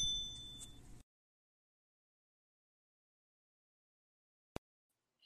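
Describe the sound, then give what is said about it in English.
A bright notification bell ding rings out at the start with a ringing, shimmering tail, then silence, broken later by a single sharp click. “make sure you like, subscribe, and hit that bell icon.”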